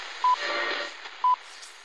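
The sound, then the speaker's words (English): A mobile phone goes off for the second time, with two short, evenly spaced electronic beeps about a second apart, clear against a steady hiss of background noise. “What phone is that? That's the second time it's gone off.”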